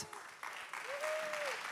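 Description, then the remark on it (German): Steady crowd applause at ICF Frankfurt welcoming a guest onto the stage fills the whole moment, a dense wash of clapping from a sizable audience, with a faint tonal whistle or feedback hum rising and fading in the middle. “Herzlichen Applaus für dich”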